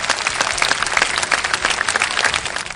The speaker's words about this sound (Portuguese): Eu acho que a gente merece uma rodada de palmas virtuais.